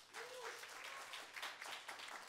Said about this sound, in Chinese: 我这样子是今天的分享，大家接受吗？各位，好，就掌声一下吧。